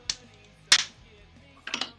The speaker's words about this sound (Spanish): tu cachetada.